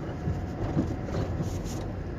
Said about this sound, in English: I'm in the car. I'm heading to work.